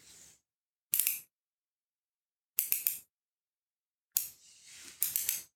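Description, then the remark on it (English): Short bursts of metallic clicking and ratcheting as sockets are tried on a ratchet wrench, a smaller one after the biggest proved too big, come in four quick clusters separated by silence, fairly loud with no talking. “that we can use to loosen the sockets to take a look inside. So let's just try a couple out.”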